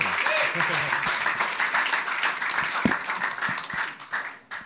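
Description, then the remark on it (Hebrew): A crowd of people applauding to welcome a guest speaker, a dense, steady wash of many hands clapping at once that carries through the whole stretch and tapers off at the end, with some voices mixed in. “נעשה את כפיים.”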